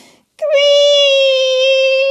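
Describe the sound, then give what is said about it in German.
A bathroom door creaks open with one long, loud, steady high-pitched squeal that holds for well over a second after a brief soft rustle. No one speaks. “Quietsch! macht die Badezimmertür laut, ganz laut. Sie quietscht.”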